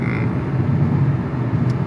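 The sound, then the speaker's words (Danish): Steady low rumble of a car cabin on the move while driving through Zealand, a constant engine and road drone filling the space at a moderate level with no voices. “normalt har du studiet for dig selv, men nu sidder vi her i en bil på vej igennem øh, Sjælland.”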